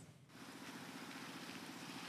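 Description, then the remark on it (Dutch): A steady wash of traffic noise from a film scene, with a low engine rumble, as cars and other vehicles drone continuously in the background without any distinct horn or pass-by standing out. “Wat heb je, zo uit, wat heb je uit de achtergrondgeluiden kunnen filteren, denk Voertuigen en de auto's.”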